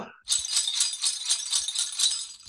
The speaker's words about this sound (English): you know we can hear some jingle bells.